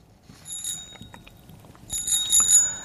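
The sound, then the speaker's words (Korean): A bicycle bell, played as the quiz "treasure sound" on a KBS FM radio programme, rings in two short bursts, a brief trill followed by a longer rattling ring a second later, with bright high metallic tones and no voices. “자전거 소리입니다.”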